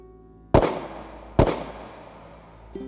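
Two sharp, loud gunshots ring out about a second apart, fired where a man was killed, each a sudden blast trailing into a brief echoing decay, with no talking.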